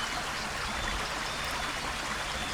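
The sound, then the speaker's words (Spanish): Steady, fairly quiet watery rushing and light splashing as a turtle bathes in a lake, continuing evenly without distinct individual splashes. No voices. “De regreso a su casa, se dio un baño en el lago”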